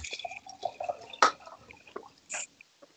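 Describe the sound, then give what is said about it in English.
A Little Buddha Cocktail Co. grilled pineapple and rosemary premium vodka cocktail is poured into a glass: brief splashes and drips of liquid, a sharp clatter midway, then a short fizzing gush near the end, all fairly quiet with no talking. “Yeah, I gotta pour the second one.”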